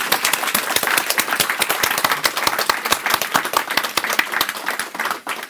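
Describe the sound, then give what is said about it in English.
An audience at a book event applauds steadily to welcome an author, many hands clapping in a dense, even patter that holds a constant loudness before thinning out at the end. No one speaks. “Let's give her one more welcome applause.”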